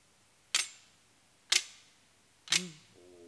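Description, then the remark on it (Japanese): Three crisp metallic clacks from the deliberately loose guard of a handmade Ainu emushi ceremonial sword carried over the shoulder, rattled by snapping the wrist, spaced about a second apart, sharp, each ringing briefly before fading, with no talking. “カシャンカシャンっていう音はこう手首をスナップしてあの音を出してるんですけど普通の刀はやっぱり唾が動かないようにできてると思うんですけどこの M 氏はまばらいの時に使うものなので音とかであの悪い魔物をおびき寄せないように退散させるようにできてるのでちょっとつばが緩めに作られてます”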